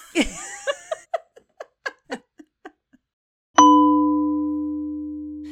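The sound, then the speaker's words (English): A burst of laughter trails off in short, fading bursts, then after a brief pause a single loud, bright chime strikes and rings out with a long, slowly decaying tone. “All right, chime.”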